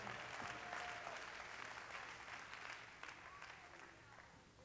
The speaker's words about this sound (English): Clap your hands to the Lord and give God praise.